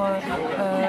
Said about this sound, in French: Vu que là actuellement nous sommes dans un bar et qu'il y a du monde autour